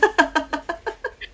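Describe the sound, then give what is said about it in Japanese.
A balance ball creaks and squeaks in a quick, steady rhythm, about eight short rubbery squeals in a row as a mother bounces on it while soothing her baby, gradually fading. “ちょっとミシミシっていう音がするんですけどこれはバランスボールの音です”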